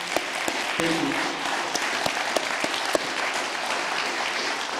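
A room full of people applauding steadily, dense overlapping hand claps filling the space at a consistent level for several seconds, with a brief murmur of voices underneath.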